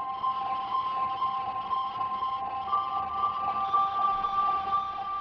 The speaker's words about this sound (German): Diese Verzerrung, die in diesem Sound hörbar ist, das ist ein Effekt, der heißt Space. Das ist so ein dunkler Gitarren-Distortion eigentlich. Äh, und der funktioniert mit dem Klavier fantastisch.